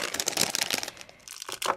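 Crisp crinkling of a plastic bag of gummy bears being handled and pulled out, dense rustling bursts with a brief lull in the middle, no voices.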